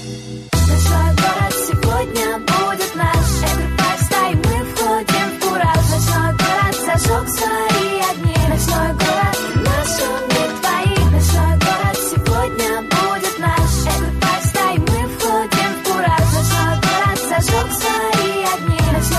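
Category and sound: music playing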